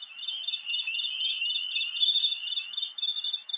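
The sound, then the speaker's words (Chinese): A steady, dense chorus of high-pitched insect chirring with bird calls woven through, holding a fairly even level throughout with small flickering peaks and no voices. “就是这个虫鸣鸟叫， 很像，真的很像。”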